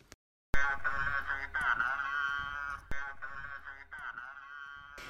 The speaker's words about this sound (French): Ça, je crois que c'est un des sons qui restera pour moi le plus caractéristique du pays. C'est le son de la variété des ventes ambulantes qu'il peut y avoir dans, dans les rues du pays. Ici, on vend des tamales.